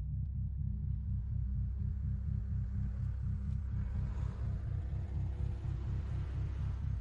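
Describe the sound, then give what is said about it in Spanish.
A car engine rumbles steadily with a deep, pulsing low drone, holding an even level throughout as the car drives through a street under construction, with faint road noise above and no voices. “Conduce llorosa, pasa por una calle en obras.”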